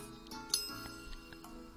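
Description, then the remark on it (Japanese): A single bright clink of glasses touching in a first-meeting toast, with a short high ringing tail that fades over a moment against a quiet, murmuring background. “とりあえず、はじめましてということで、乾杯しませんかしましょう。じゃ、乾杯。”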